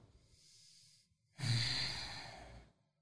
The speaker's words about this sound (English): A lot of heavy breaths for me this episode.